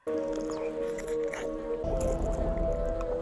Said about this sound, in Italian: La pentola dove la mamma di … sta preparando la polenta. E lui è andato a registrare il suono perché assomigliava allo staccare una cacca dalla scarpa